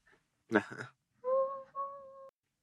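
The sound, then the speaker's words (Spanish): A voice imitates a train: a short harsh hissing burst like brakes, then a steady high two-part whistle tone held for about a second, fairly loud. “Sí, así suenan los trenes, ¿no? Los ah, trenes, ¿no? Bueno, ese fue como el freno.”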